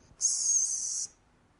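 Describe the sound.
A soft, steady whistle held on one high pitch for just under a second, produced by a human voice imitating a gentle whistle, with no talking around it.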